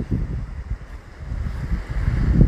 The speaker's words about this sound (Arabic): من المستحسن انك تغمض عينيك وتركز على صوت الموج اللي كاين في الخلفية تاع هاد البودكاست وتبدأ ترخي عضلات جسمك